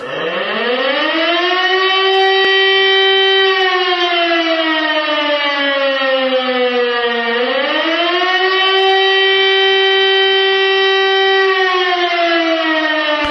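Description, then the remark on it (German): A loud civil defense siren wails steadily, its tone rising and falling in slow, undulating sweeps, the acute danger warning pattern signaling that danger is imminent, with no voices over it. “Und äh, wenn die Gefahr dann wirklich da ist, dann gibt es nicht mehr dieses Signal, das ihr eben gehört habt, sondern dann gibt es folgendes.”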